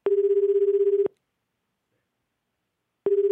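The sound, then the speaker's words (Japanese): A phone ringback tone purrs for about a second, falls silent for two seconds, then starts again; a steady, slightly warbling low buzz heard clearly on its own, with no voices. “電話電話分かったよあんまり繋がらんでもいいかもって思ってしまったこれ出ますかね”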